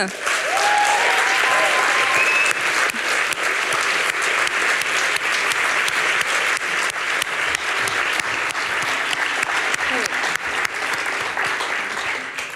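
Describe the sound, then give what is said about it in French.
Loud, sustained applause from a large crowd fills the whole stretch, dense clapping with some cheers and whoops rising above it early on. “Et maintenant que les dés sont jetés, je vous demande de faire un maximum de bruit, hein, comme on dit dans le stand-up, pour la directrice adjointe du Paris Podcast Festival”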